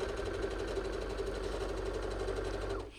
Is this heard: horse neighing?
no